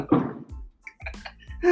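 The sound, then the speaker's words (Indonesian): Fireworks going off outside, heard as a few muffled thumps and pops at irregular intervals, with a louder burst near the end. “ada kembang api Hah?”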